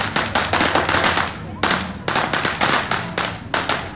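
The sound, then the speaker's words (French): A rapid, loud string of firecrackers set off at the San Juan festival, sharp bangs tumbling over each other in an irregular crackling barrage that continues without pause. “Après, on va à la plage et on fait un grand feu et on allume des feux d'artifice et des pétards.”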